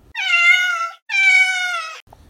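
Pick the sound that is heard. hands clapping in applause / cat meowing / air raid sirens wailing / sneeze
cat meowing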